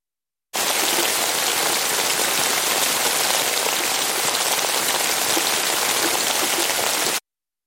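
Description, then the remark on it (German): Steady rain patters on the dense leaf canopy of tall beech trees, a dense, even hiss of countless drops with scattered ticks and splashes as water drips from branch to branch, continuous and fairly loud with no voices. “Das dichte Laubdach hoher Buchen. Ein Trommelfell aus Blättern später leises Ticken. Es perlt und platscht von Ast zu Ast.”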